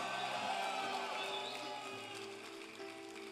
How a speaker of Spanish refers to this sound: Oh, si tú lo crees, dale un fuerte aplauso al rey. Es más, ponte de pie y dale un grito de gloria al Señor.